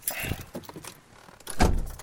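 Sounds of someone getting into a car: keys jingle and clothing rustles, a brief quiet pause, then a car door shuts with a solid thud.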